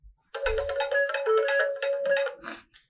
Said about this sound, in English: Her mobile phone rang.